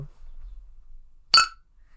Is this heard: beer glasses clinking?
yes